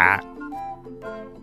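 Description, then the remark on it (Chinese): A human voice imitates a frog's croak, giving two drawn-out, nasal 'ribbit'-like calls in a row, fairly loud with a buzzy, tonal quality. “这世界上最好的事，就是做一只青蛙，呱呱。”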